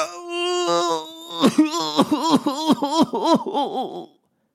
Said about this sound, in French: Le roi explose en sanglots.